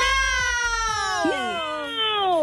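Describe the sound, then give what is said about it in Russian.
Three voices on the radio station Humor FM shout a drawn-out, high-pitched "meow" together as a New Year greeting, imitating cats. It is one loud sustained cry with overlapping tones that bend and slide down in pitch. “И давайте сделаем это втроем, прокричим э, вдобавок к этому наше мяу!”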